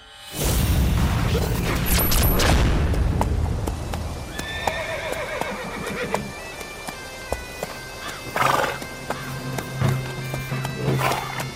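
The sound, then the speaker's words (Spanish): A horse pulling a sleigh whinnies loudly at the start, followed by a steady series of sharp hoof clip-clops, with a few more snorts and short neighs breaking in near the end. “Madre mía, Si esto sería un poco casi droga para los caballos, ¿no? Sí, yo creo que van a necesitar porque nos vamos a ir bastante lejos.”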